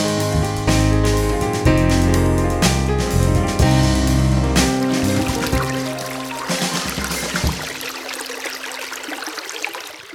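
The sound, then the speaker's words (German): The Rehbach brook flows steadily through snow with a continuous rushing, babbling sound. Sustained tonal sounds lie over it for most of the stretch, and the water is left alone and clearer near the end. “Man hört den Bach laufen und sieht Schnee.”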